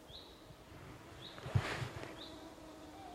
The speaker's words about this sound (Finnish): Tuulen vire kuuluu vain tällä hetkellä. Muutaman pienen hyttysen ininen, mutta nekin lentelevät tuulen mukana.